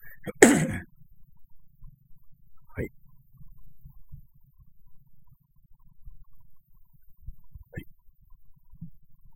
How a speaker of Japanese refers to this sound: ちょっと咳払いします。